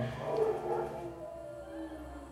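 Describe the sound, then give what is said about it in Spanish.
Dogs in the background give off drawn-out, howling barks and whines, steady and moderately loud for a couple of seconds, with no one talking. “De aquí se pueden ir a muchos lados, espero que, creo que se van a ir muchos perros de fondo, pero bueno, uno que le puede hacer, ¿no?”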